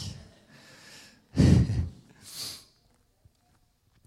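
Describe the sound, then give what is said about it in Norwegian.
Breathy nasal sniffs and snorts from a person with a cold come in a few short bursts, the middle one loudest, with a soft laugh-like breath mixed in before it trails into near silence. “Jeg er litt sånn snufsen, så jeg beklager det med sånn livet.”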